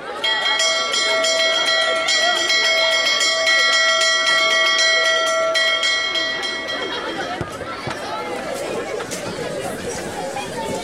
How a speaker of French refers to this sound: La stupeur et le désordre s'interrompent lorsque la cloche retentit.